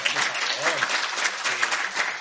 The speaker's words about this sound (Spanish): Un aplauso para, para la chica,